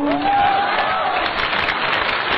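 Audience applause: a dense, steady wash of many hands clapping at an even loudness for a couple of seconds, with a faint sustained tone briefly audible near the start.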